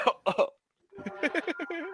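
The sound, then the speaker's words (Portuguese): Three quick, sharp coughs from a man, then a brief pause followed by a run of rhythmic voiced bursts that sound like laughter or chatter. “O cara tá tossindo, cuidado, velho.”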